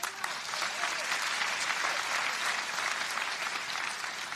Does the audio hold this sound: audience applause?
yes